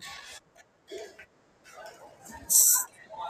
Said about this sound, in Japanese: 今、えっと、あの、仕事が終わって、うんうほう駐車場に向かってて、ショッピングモールの今とこ通ってるんですけど、ちょっとそこで、はい、駐車場向かってる途中で。あはい。まあ、まあ、もう少ししたら静かになると思います。